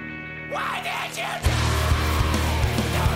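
A raw, strained screamed vocal from a song's recording delivers the first lines in mono over a steady musical backdrop, with the end of each line doubled and panned by a second voice; heavy distorted instruments crash in and continue loudly beneath the harsh shouted voice.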